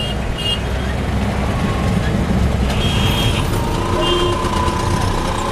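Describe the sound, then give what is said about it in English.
Dense, steady roar of heavy street traffic in New Delhi, India, with engines rumbling, while short, high horn blasts or beeps cut through repeatedly and voices murmur faintly in the mix. “It has the highest rate in the world, which isn't such a puzzling statistic when you actually experience a day riding around the New Delhi traffic”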